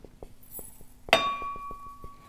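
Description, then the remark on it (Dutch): A single bright clink of cups or glass rings out with a sustained high tone while coffee is being made in the morning, set against a soft, steady series of low knocks or ticks in the background. No one speaks. “Ik ga koffie zetten.”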